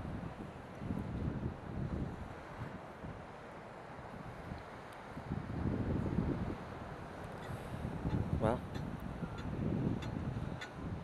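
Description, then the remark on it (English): Small ocean waves roll and break on a shoreline in repeated low, rumbling surges, mixed with gusty wind noise against the microphone; a voice says a single word briefly. “you can hear the waves crashing. They're not big, but they're going to be fun and it's going to be quite cold.”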